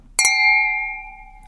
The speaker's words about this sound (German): wir stoßen ja immer mit einem Glas an